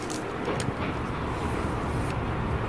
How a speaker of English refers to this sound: I don't know if you caught that. Did you hear him? Like it sounded like he was breaking branches around the train uh, on the rail.